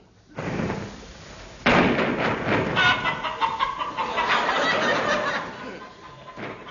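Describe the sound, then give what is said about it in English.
Chickens clucking and squawking in a busy, continuous flurry, loud, with a sharp thump partway through and no one speaking. “The sound of chickens has specially been added for people living in rural districts.”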